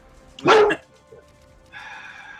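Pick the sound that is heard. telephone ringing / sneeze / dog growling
dog growling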